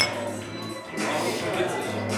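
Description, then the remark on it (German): Glasses clink together in a toast, a few bright taps ringing out over a low murmur of voices. “Prost”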